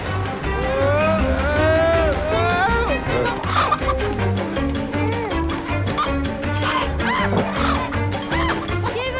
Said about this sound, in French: Oui, j'avais oublié ce bruit de poulet à la fin de la bande-annonce, ça me fait